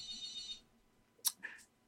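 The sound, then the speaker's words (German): A phone rings once with a short, bright electronic trill, then cuts off. A couple of sharp clicks follow, like the handset being picked up. “gehen wir ja ans Telefon.”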